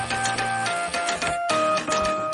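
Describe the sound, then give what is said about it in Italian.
Old computer drives of the Floppotron buzz and whir in pitched tones, their motors playing a steady electronic-sounding melody over a dense mechanical rattle, loud and continuous with no voices. “Sì, questa è Wi-Fi Area e questi sono i Floppotron.”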